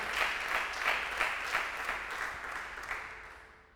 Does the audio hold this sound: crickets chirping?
no